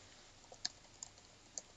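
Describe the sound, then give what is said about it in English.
A few soft, scattered keystrokes on a computer keyboard, irregularly spaced clicks against a quiet, hissy background with no one speaking. “Cause you're typing.”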